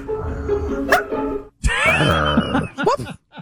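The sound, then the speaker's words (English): A man's voice imitates a wolf, letting out sharp, high-pitched yips and a wavering howl-like cry at a body of water, loud, in a few quick bursts with brief pauses between. “I want to hear the wolf guy again because that yip is particularly good.”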